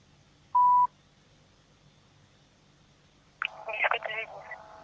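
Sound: telephone dialing tones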